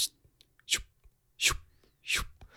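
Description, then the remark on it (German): A voice mimics barber scissors snipping, making three crisp, hissy bursts spaced evenly about a second apart, fairly loud, with soft breathy clicks between them. “Ja, aber auch mein Tipp an alle Hörer da draußen, wenn ihr irgendwie Probleme beim Einschlafen habt und irgendwie entspannen wollt, dann guckt euch echt mal so Barbiervideos an, weil die, wenn, also diese, dieser Geräusch immer von dieser Schere so”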